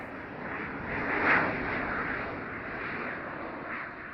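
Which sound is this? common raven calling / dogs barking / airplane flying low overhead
airplane flying low overhead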